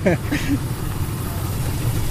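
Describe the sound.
The engine of an old prototype car idles with a steady, low mechanical rumble while its power generator runs, a brief voice sounding at the very start before the motor drones on alone.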